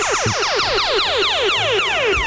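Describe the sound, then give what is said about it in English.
A rapid burst of laser sound effects, roughly a dozen high zaps sweeping downward in pitch one after another, loud and steady with no talking. “And just a quick note before 9 o'clock, you are going to hear the Jungle Love Laser.”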